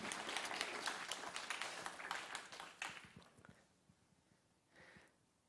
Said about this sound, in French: On peut l'applaudir lui.